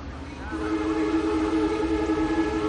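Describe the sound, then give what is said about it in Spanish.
A train rumbles on tracks near a building as it arrives at a station, and after a brief moment a long, steady horn blast sounds over the low rolling noise. “Las vías del tren quedan bastante cerca del edificio.”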